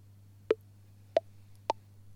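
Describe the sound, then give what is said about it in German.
Three short, crisp VoiceOver screen-reader plops as a finger slides up from the screen edge toward the App Switcher, each one pitched a little higher than the last, spaced roughly half a second apart over a faint steady low hum, with no one talking. “Ja, es war nur ein Plopp, aber noch höher.”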